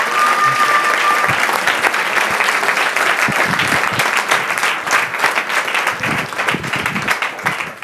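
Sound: audience applause welcoming guests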